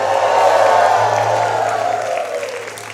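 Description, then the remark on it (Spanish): A large crowd at a religious service erupts in a shout of victory, with loud cheering, shouting and applause, a dense sustained roar that holds steady for a few seconds before easing slightly toward the end. “Y alguien que lo reciba que dé un grito de victoria.”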